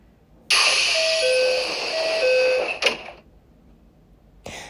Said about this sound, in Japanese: これってさ発射音の後に閉まるのかな今度調べておきます